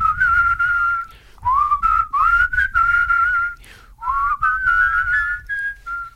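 People whistle a melody together, carrying on for several seconds in two phrases, with sliding notes and a short pause between them, fairly loud, over a low rumbling background.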